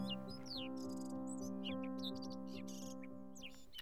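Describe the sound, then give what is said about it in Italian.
Barn swallow (Hirundo rustica) chirps and twittering calls, quick high notes in a busy, continuous stream, over a steady low humming drone that runs throughout. “la rondine, Hirundo rustica. Fa il nido dove abita l'uomo, sotto i tetti di case e stalle, utilizzando pagliuzze e fango, e cercano il cibo nelle nostre campagne, dove esiste una certa biodiversità.”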